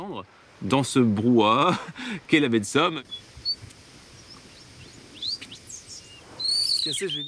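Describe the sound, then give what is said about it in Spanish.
A bird-song imitator's voice imitates bird song with loud, warbling, swooping trills for a few seconds, then gives way to faint, scattered real bird chirps in the quiet outdoors at the Bay of Somme. “Cuando se canta como un ave, uno se vuelve de inmediato invisible, es decir, que parece desaparecer en la naturaleza.”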